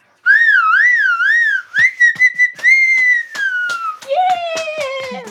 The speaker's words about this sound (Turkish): Kapanışı ıslıkla yapalım.